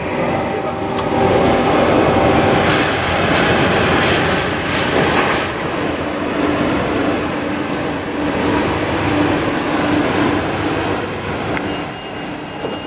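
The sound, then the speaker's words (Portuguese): Banknote printing presses of the Bank of England run at its pound sterling banknote factory in Essex, with a loud, steady mechanical roar and whir, continuous and dense throughout, with faint rhythmic clatter underneath and no voices. “E ela também me obriga a explicar que, na verdade, esses sons vêm das impressoras de dinheiro do Banco da Inglaterra.”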